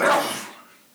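A single sharp, loud sneeze bursts out, then fades quickly into a breathy tail within about half a second, with no talking around it.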